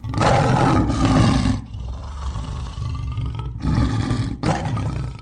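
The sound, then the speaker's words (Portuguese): Lions roar loudly in deep, rumbling bursts, with a lower, growling stretch between the roars and no voices present. “O cristão que procura andar retamente perante Deus fará bem em atentar às ações de Daniel durante a sua permanência na cova dos leões.”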